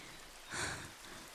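rain falling

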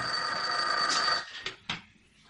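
telephone ringing

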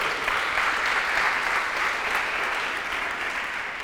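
audience applause

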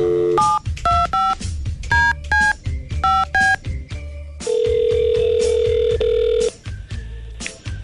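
telephone dialing and ringing

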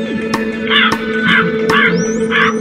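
crow cawing

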